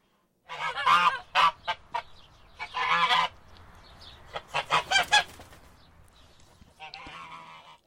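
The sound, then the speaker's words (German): A goose named Schnatterbix honks and cackles in a rapid, uneven series of loud, harsh calls, with short bursts and brief pauses, fading to softer chatter toward the end. “Aber hören wir mal, was Barbara der Gans mit dem lustigen Namen Schnatterbix noch über den heiligen Ulrich erzählt.”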